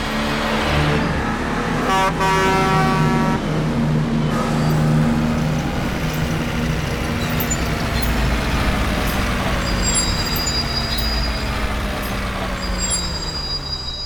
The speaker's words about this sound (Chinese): 呃，原来是一辆又一辆的卡车，不断地开到废弃城堡的附近。